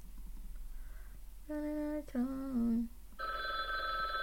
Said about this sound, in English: The phone is ringing. The phone, the phone is ringing.